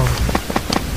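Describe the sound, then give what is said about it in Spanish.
A steady, crackling static hiss like electronic interference from a video game, filling the moment with bursts of noise at an even, fairly loud level, with no one talking. “Ese es el sonido de interferencia.”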